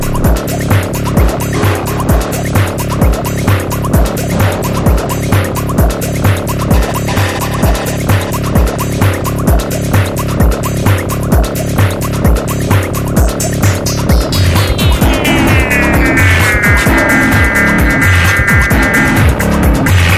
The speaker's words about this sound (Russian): а давай попробуем послушать, например, предпоследнюю песню